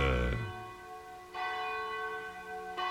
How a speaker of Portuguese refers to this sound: Quando faltam 10 para as 22, 10 para as 10 da noite, toca o um sino da Catedral da Nossa Senhora de Aparecida.